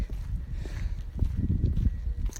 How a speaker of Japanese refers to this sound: あの足音、サクサクって言いますね、雨が少し、えー、先ほどまでばらっとしてたもんですから、足の足音、ね足音、いいですね、足音も。